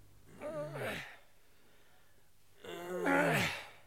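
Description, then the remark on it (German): Two heavy, voiced exhalations from men straining to push a heavy furniture van off rails, each a drawn-out grunting breath with a pause between, moderately loud, with no words spoken. “Das äh, schwere Atmen dieser Männer entspringt keinerlei jugendgefährdenden Motiven. Im Gegenteil, hier wird hart gearbeitet.”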